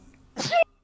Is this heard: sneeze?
yes